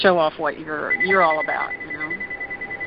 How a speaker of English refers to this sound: Oh, sorry about that phone.